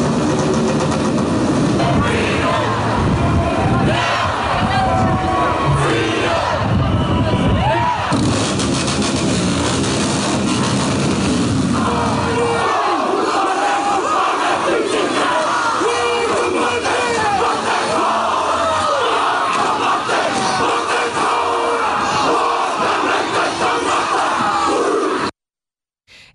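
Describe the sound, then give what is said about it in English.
Thousands of protesters against lockdowns and vaccine mandates roar and chant loudly and continuously at Parliament in New Zealand, on a march led by a group of motorbikes. For the first half, a heavy, low engine-like rumble runs beneath the voices, then fades, leaving the shouting crowd on its own. “Thousands of protesters descended on Parliament today to protest lockdowns and vaccine mandates.”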